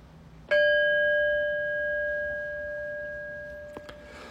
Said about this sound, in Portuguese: desliza na expiração e daqui a pouquinho eu vou convidar o sino a soar. E não se mexe correndo, nem sai da postura. Procure deixar essa possibilidade de estar presente acontecer e continuar acontecendo, mesmo depois que o sino soar.